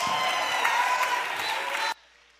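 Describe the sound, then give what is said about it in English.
An audience claps their hands together in a dense, steady wash of applause that holds for about two seconds, then cuts off abruptly to near silence. “Clap your hands and tell your neighbor, it will work.”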